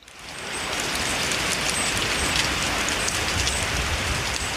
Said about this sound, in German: Und sie schreiben halt dazu, das ist der Klang von fallenden Fichtennadeln im Wald. Krass, das klingt wie Regen. Klingt wie Regen, ne?